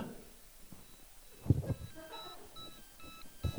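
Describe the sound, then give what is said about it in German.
Several short, high electronic beeps sound at irregular intervals, clear but not loud, over low background rumble and a couple of soft thumps. “Jetzt piept's.”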